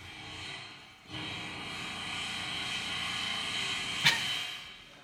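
A pneumatic jackhammer drills into a steel beam, a loud, continuous mechanical roar with a rapid rattling texture. It pauses briefly near the start, and a sharp metallic clank comes near the end.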